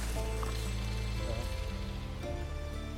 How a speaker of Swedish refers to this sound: Särskilt när det regnar lite så här, lite lätt. Jo, jo, jo, det är helt fantastiskt när det kommer lite regn.